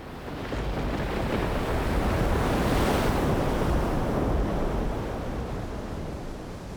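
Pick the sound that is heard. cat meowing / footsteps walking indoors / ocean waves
ocean waves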